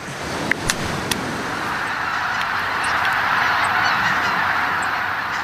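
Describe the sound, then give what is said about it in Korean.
A flock of migratory winter geese honks continuously over a wetland beside the sea near a village, a migratory bird stopover. Many overlapping calls form a steady, moderately loud chorus, with a few sharper calls standing out near the start, and no one talking. “수많은 겨울 철새들이 날아와 습지 일대를 가득 채웠다.”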